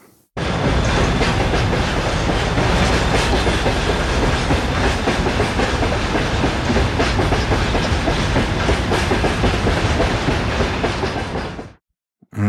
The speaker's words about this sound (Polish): zatem odjeżdżamy pociągiem, który co roku e, zakłóca trochę ob obecnym e, skupienie na konferencjach, ale też dodaje dużo uroku, bo koło miejsca obrad znajdują się tory kolejowe i czasami słychać taki pociąg, który odjeżdża z Jaremcza.